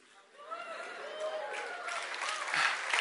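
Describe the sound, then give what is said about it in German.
An audience breaks into applause and cheering, a dense wash of clapping with voices rising over it, building steadily and staying loud to the end. “Jetzt sollten wir eigentlich mal wieder jubeln.”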